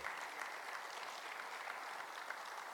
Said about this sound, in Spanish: ¿Cuántos le dan un fuerte aplauso por eso?